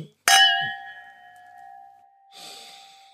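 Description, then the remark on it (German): Wine glasses clink in a bright ring with a long, sustained tone that slowly fades over several seconds, part of a game of guessing the grape variety, with a soft breathy exhale near the end and no talking. “Wir machen Klingklang und ihr müsst wissen, welche Rebsorte es ist.”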